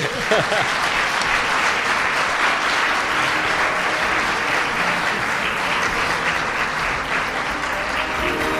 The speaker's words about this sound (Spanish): bueno, un aplauso